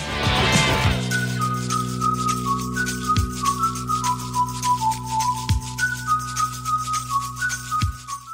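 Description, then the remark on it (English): A man whistles a bright pop song melody in short, clear notes over sustained synth chords, with a deep booming hit landing every couple of seconds. No one speaks. “has whistled on two songs, and they both went to number one.”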